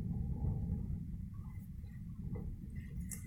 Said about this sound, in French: le vent qui gronde à travers les murs, qui fait bouger les feuilles des arbres, violemment ou tout doucement.